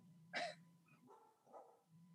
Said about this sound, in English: Can you guys hear the dog barking? Yes. Yes. All right, you guys talk. I need to see if that's Ivy or not.